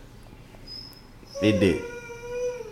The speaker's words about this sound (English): That's that's the dog in the background. She being a little pug.